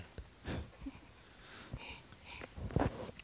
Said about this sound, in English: Listen to the sound of your breathing. and then take that step. Breathe in and then breathe in again.